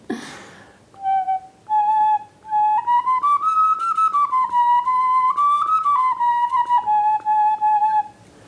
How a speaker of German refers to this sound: Und wenn man so Vogelknochenpföten spielt, die brauchen viel weniger Luft. Da muss man am Anfang mal ein bisschen ausatmen.